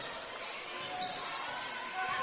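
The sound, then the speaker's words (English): A basketball is dribbled slowly on a court out on the right wing at the start of the fourth quarter of a game, its soft bounces blended into a steady, loud wash of crowd noise for a couple of seconds. “Slow dribble.”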